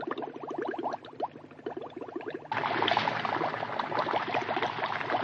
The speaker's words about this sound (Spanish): Sí, sorbed parte de esta pócima antes de que se pasen las burbujas. Mirad qué humeante. Mm. ¿Cómo burbujea?